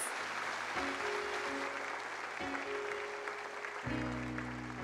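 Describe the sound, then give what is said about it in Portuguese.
An audience applauds the Lord in praise during a Christian worship service, a dense wash of clapping that stays loud throughout, while sustained organ or keyboard chords shift underneath at a few points. “Aplauda o Senhor.”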